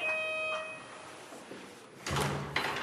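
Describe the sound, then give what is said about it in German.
A short electronic doorbell chime rings, its tone fading out, followed after a quiet pause by the rattle and clunk of a front door being opened, during door-to-door election canvassing in a quiet residential area in the south of Neukölln on a Tuesday afternoon shortly after 5 pm. “Und dann geht das an Türen klingeln los.”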